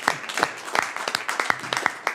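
A short burst of applause: a small group clapping in quick, uneven bursts, each clap sharp and crisp over a steady wash of hand noise. It is moderately loud, with no talking.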